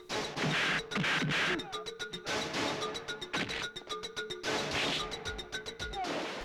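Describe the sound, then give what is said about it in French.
Rapid, repeated punch sound effects from a Bollywood fight scene hit in quick succession, loud, with sharp whacks and smashes layered over a dense, clattering fight-scene soundtrack; the same punch effect recurs over and over. “C'est-à-dire que c'est toujours le même bruitage de coups de poing ah qui revient à peu près 153 fois dans une même scène, puis se mettre des pains dans la gueule pendant 5 minutes quoi.”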